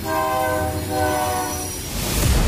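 A loud, sustained train horn blares with steady harmonic tones over the deep rumble of a rolling train, the low rumble swelling louder near the end.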